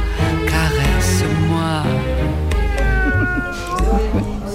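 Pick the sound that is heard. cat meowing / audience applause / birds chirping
cat meowing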